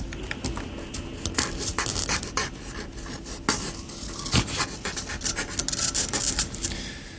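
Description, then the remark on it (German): A marker pen, held in a person's mouth, drags across a surface while drawing a picture, making a continuous run of scratchy, squeaky strokes of uneven length with a few sharper accents, steady for several seconds with no voices. “Und zwar steckt er sich den Stift jetzt nochmal in den Mund und äh, Du musst anhand der Quietschgeräusche erkennen, um was für ein Bild es sich handelt.”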